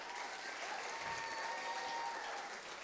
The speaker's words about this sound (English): Give them a round of applause, people. You guys can go ahead and sit down.